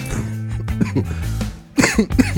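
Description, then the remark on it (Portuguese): A person coughs several times in quick, harsh bursts, with a brief throat-clearing quality and a short pause before the final coughs. “Tô com uma tosse, cara.”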